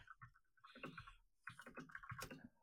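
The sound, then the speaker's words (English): Rapid, loud clacking of a computer keyboard as someone types a Google search in quick bursts, each keystroke sharp, with a brief pause midway before the typing resumes. “I'm googling it with my very loud keyboard right now, so this will be nice background noise for the uh, for the podcast.”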